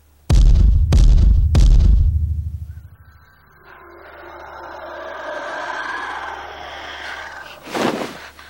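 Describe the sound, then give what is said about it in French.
Three heavy, booming, violent thuds land in quick succession against a door, loud, each with a deep resonant ring. A quieter rustling follows, then one more muffled knock near the end. “Et puis ça s'éloigne, ça revient, et c'est juste euh, une terreur comme ça sonore, pure, c'est que c'est coup contre la porte.”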